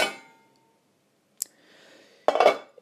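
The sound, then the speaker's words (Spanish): A pot lid clangs with a short metallic ring, then gives a brief tap, and closes with a louder rattling clatter; a soft bubbling hiss from pasta boiling in the pot fills the gap between. “la tapa porque estoy aquí hirviendo la pasta.”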